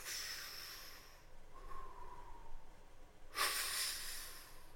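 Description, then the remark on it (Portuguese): Slow abdominal breathing by a person lying down, expanding only the belly rather than the rib cage: a long airy exhale fades out, a brief quiet pause follows, then a fresh breath rushes in with broad hissy noise, all without any talking. “Só o abdômen expande eu não uso a minha caixa, meus músculos intra é, aqui da caixa torácica, eu não uso eles, eu respiro com a barriga.”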